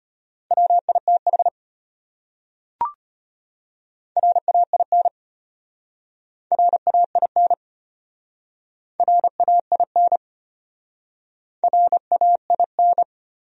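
Morse code sent at a brisk 25 words per minute, spelling out common English words for speed practice: a steady mid-pitched beep keyed into quick dots and dashes, in five short bursts separated by pauses, with one sharp click between the first two.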